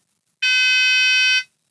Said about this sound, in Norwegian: Om brannalarmen ringer? Ja! Å, oh, herregud! Satan, vi må ut. Ja, det må vi sikkert.